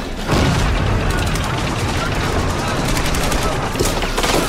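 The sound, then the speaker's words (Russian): Dense, continuous battle gunfire fills the scene, with rapid overlapping shots and rumbling booms at a steady loud level, like a chaotic firefight, as a Maxim machine gun fires and a senior lieutenant shoots from a trench. “Старший лейтенант стреляет.”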